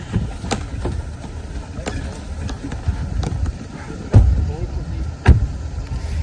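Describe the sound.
A large, fancy limousine drives off, its engine rumbling steadily, with a few sharp clicks and thumps and indistinct voices in the background.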